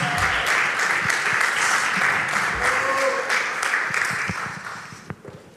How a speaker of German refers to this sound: Kommt doch auf die Bühne und ihr dürft euch Platz nehmen. Gebt doch diesen Ladies schon einen Vorschuss. Applaus.